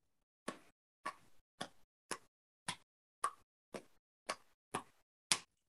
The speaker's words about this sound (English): Well, do you know what the sound of one hand juggling is? Well, I think it would be kind of whoosh, whoosh, whoosh, whoosh, whoosh, whoosh. Let me show you what the sound of one hand juggling looks like.